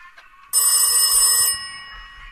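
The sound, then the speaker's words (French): A telephone bell rings once in a loud, metallic burst lasting about a second, then a fainter ringing tone lingers briefly afterward. No one speaks. “Personne n'appelle en dehors de sa famille et de son travail. Personne n'a ce numéro.”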